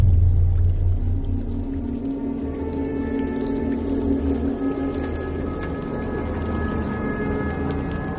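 A short musical interlude of sustained, droning low tones layered with thin, shimmering higher notes, holding a steady moderate level for several seconds with no voices.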